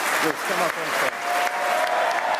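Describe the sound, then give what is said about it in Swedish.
Loud, sustained applause from a large crowd with cheering voices rising above the clapping, as Liz Truss is announced as elected leader of the Conservative and Unionist Party; a dense continuous roar lasting the whole stretch with a brief whistle-like tone near the end. “Mm, jubel alltså för Liz Truss då, som blir den tredje kvinnan efter Margaret Thatcher och Theresa May som blir premiärminister i Storbritannien.”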